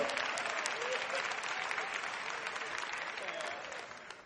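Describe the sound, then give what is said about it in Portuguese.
Sustained audience applause for Jesus, a dense steady clatter of many hands clapping at once, holding loud throughout and tapering slightly near the end, with no voices heard. “Pode aplaudir a Jesus, foi ele que pagou.”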